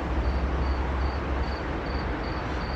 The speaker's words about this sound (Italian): Infatti. No, no, è un grillo. È un grillo solitario. Ciao grillo. Ciao, buongiorno. Portami tanta fortuna.